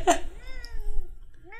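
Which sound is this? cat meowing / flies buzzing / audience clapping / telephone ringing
cat meowing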